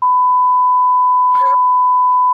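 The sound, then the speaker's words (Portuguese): A loud, steady censor bleep tone runs for over two seconds, covering a spoken word; a brief burst of muffled voice pokes through near the middle before the tone cuts off abruptly. “Ah, depois dessa bipada aí, o editor salvou a gente, Dinizão.”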